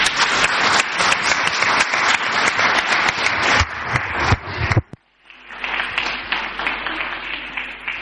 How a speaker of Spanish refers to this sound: Les vamos a dar un aplauso ¿eh? de todo este público maravilloso, porque esta es la generación próxima de este barrio.